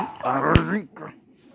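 A small dog wearing clothes growls, a short rising and falling snarl lasting under a second, with a brief sharp knock in the middle, then fading into near quiet.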